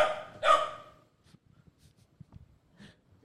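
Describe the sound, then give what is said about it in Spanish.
A dog named Flor lets out one short, sharp bark, followed by a stretch of faint, scattered soft noises and near-quiet. “Flor le está ladrando.”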